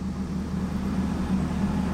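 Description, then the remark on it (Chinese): A large truck rumbles past two people walking side by side toward Qingzhou Bridge, its deep, steady engine drone holding for a couple of seconds with a low hum throughout and no voices. “两个人朝着青州桥并肩走去，一辆大卡车驶过他们身旁。”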